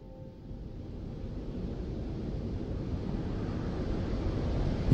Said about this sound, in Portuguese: Nós estamos no início de uma bela manhã. O vento é suave e no mar reina a mais tranquila calmaria. Com os pés na areia, observamos a maré subir na praia da Barra de Caravelas.